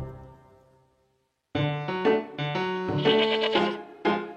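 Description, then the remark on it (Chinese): A young goat bleats in a string of loud, wavering, high-pitched cries, four or so calls in quick succession, after a soft fading tone and a brief silence. “有一只小山羊吃草时迷路了。 咩咩，朋友们，你们在哪儿？”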